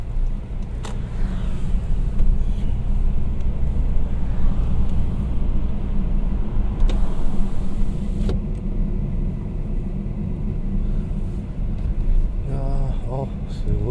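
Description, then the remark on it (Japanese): Road traffic in a jam on a Monday morning: a steady, heavy low rumble of engines that holds for the whole stretch, with a few brief clicks and a faint voice-like murmur near the end. “渋滞してるな”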